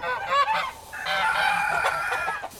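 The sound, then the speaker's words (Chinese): Geese honk loudly and continuously on a farm in a mountain hollow in Yilan, a harsh, nasal chorus of overlapping calls that rises and falls without a break. The farm keeps local geese and White Roman geese. No one speaks. “鸡、鸭、羊、鹅、狗五种。”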